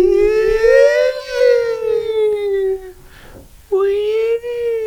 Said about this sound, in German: Mal schauen, ob man die Sirene dann hört.